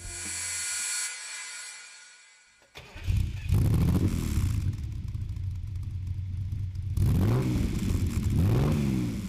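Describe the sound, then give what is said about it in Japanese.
A 1987 Lamborghini Countach 5000 Quattrovalvole, an Italian supercar with a V12 four-valve engine, cranks and fires up, then revs hard with a loud, rasping exhaust note that rises and falls in repeated throttle blips. “エキゾーストノート”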